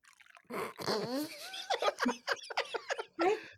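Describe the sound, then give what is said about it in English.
Dark roast decaf coffee blend from Uncommon Grounds in Saugatuck, Michigan, pours into a mug, with a gurgling, splashy stream whose pitch climbs as the cup fills, then breaks into a few short glugs and splashes. “Uh, today, what you're going to be getting is a uh, dark roast decaf blend from Uncommon Grounds in Saugatuck, Michigan, pouring into the mug here.”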